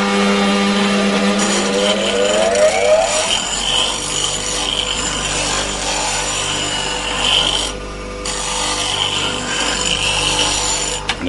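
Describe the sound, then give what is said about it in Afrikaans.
A motor whirs up to speed, then a flat chisel, held in a metal clamp in front of the wheel that slides back and forth and up and down, grinds steadily against the spinning grinding wheel, a continuous rasping hiss with a brief dip in the middle, and no voices. “die buitel sit nou vas en dit pas nou in 'n uh, metaalklampie reg voor die skuurwiel wat kan heen en weer en op en af skuif.”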